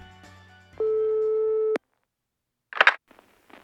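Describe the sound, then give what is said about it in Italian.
A single steady electronic telephone ring tone, Dennis of a band calling his brother Brian in the middle of the night, sounds for about a second, clear and fairly loud, then falls silent before a brief clatter and faint rustling. “Eh, allora Brian ehm, lo chiama eh, in piena notte, giustamente, suo fratello lo chiama quando vuole.”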